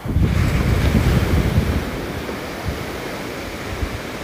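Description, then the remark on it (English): Ocean surf with no big waves washes in toward the shore as a broad, rushing roar, swelling loudest early on and then settling into a steady wash, with wind buffeting the microphone. No voices. “i mean there's no big wave but it feels like the horizon is coming towards me that's a strange interesting ooh that's a nice interesting perspective but the ocean is waves are coming towards me but like the horizon is coming towards me”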